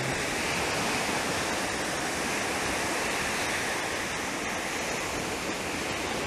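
ocean waves surging

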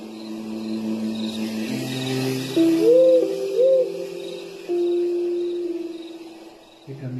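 owls hooting

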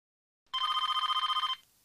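telephone ringing

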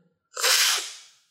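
slurping coffee

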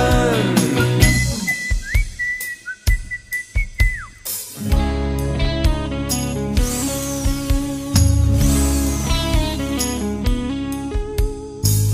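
whistling a tune

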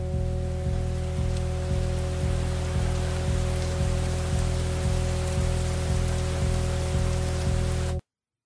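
rain falling

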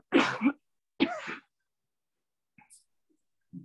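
choking cough

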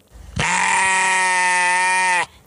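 sheep bleating

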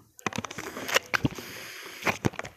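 slurping a drink

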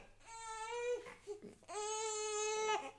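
baby crying

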